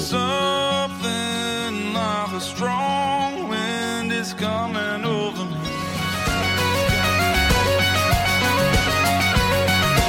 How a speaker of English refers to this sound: Here's the song I said I'd play.